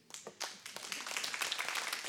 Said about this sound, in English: Yes. It's okay, you can give God praise and applaud if that's your thing